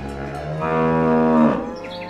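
A cow lets out one long, loud moo, a low droning bellow that holds steady for over a second before breaking off, followed by quiet. No one speaks.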